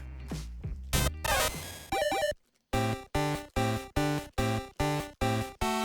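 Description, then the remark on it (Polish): A video game sound effect of Pikachu evolving into Raichu through an evolution stone: chaotic electronic sweeps and a quick rising arpeggio, a brief silence, then eight identical synthetic tones pulsing in a steady, even rhythm, loud and clear with no talking. “Teraz właśnie Pikachu ewoluuje. Tylko dzięki kamieniowi ewolucji mógł ewoluować Pikachu.”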